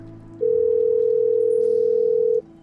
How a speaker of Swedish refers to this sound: Det går fram en signal. Det går fram två signaler.